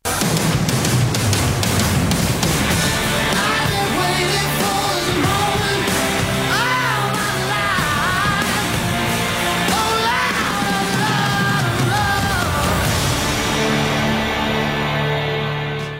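A loud, dense song plays continuously with a strained, powerful singing voice over a full band, with heavy low drums and bright, sustained instruments filling the mix.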